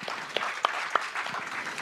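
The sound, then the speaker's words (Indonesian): A church audience claps for Jesus during a sermon in a dense, steady wash of applause, with a few sharper individual claps standing out briefly. No one speaks over it. “Yang mau beri tepuk tangan buat Tuhan Yesus.”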